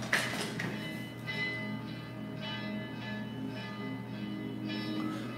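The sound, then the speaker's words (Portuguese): A church bell, rung by the priest, tolls repeatedly at a slow, steady pace, each strike ringing out and overlapping the lingering hum of the previous one, moderately loud with no talking. “só vem depois que o padre toca o sino, ó. Olha lá.”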